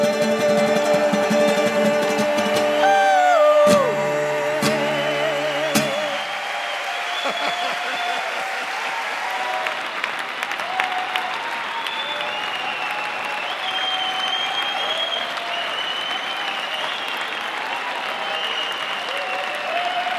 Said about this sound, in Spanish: Bueno, esta es una versión en vivo, obviamente, de uno de los conciertos, como les prometí